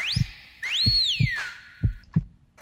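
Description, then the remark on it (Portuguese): A heartbeat sound effect: deep, muffled thumps in a steady rhythm, about five beats, with swooping electronic tones gliding up and down over them. No voices. “Boa tarde, meu coração pulsante pelas mãos do mestre mago, do comandante, na verdade, Zé Fernandes”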